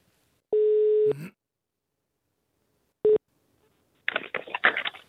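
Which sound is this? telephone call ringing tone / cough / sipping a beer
telephone call ringing tone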